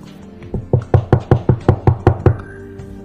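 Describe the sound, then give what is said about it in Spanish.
A rapid series of about ten firm knocks on a wooden door, evenly spaced, building slightly in force before stopping, with a low background hum. “a la puerta.”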